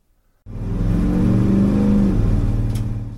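A 3.7-litre, 140-horsepower straight-six bus engine starts up abruptly after a moment of near silence, then revs steadily with a deep, loud rumble that rises slightly in pitch before settling. No voices.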